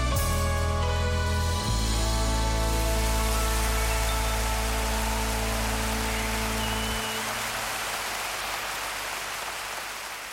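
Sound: applause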